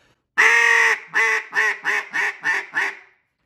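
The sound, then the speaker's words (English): A loud duck call blows a greeting sequence to draw in ducks: one long drawn-out quack followed by six shorter, evenly spaced quacks that taper off, with no talking. “Got the greeting, got a little bit out there.”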